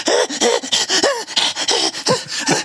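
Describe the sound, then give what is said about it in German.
A voice imitates the heavy, wheezing asthmatic panting of someone following behind: rapid, loud, rhythmic gasps with a raspy, moaning edge, about eight breaths in quick succession, with no words. “und du meinst, jetzt kämen voll die Zombies, der dabei schnauft sie einfach für irre”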